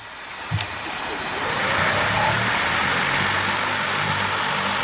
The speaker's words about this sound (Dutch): Tot slot, nieuwtje over Volocopter. Interessant Duits bedrijf. Ehm, maakt elektrisch bemande drones. Ziet er spectaculair uit. En het klinkt zo,